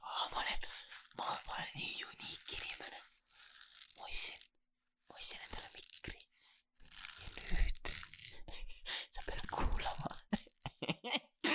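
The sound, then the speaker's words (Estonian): Household objects are handled for ASMR: crisp crunching, crinkling and scraping noises in irregular bursts with short pauses, mixed with soft whispering throughout. “sa ostad hea mikri, mida sa tegema hakkad, sa hakkad ASMR-i tegema, sa oled unique vend, mis mul on, ma tore võtan kõik äh, kodu, koduobjektid hakkad lihtsalt panema.”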